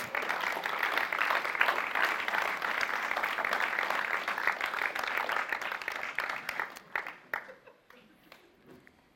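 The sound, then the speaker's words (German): A crowd applauds a woman who has been invited up to give a testimony, steadily for several seconds, a dense wash of many hands clapping, then it thins out to a few scattered claps before fading to quiet. “Gebt ihr einen herzlichen Applaus”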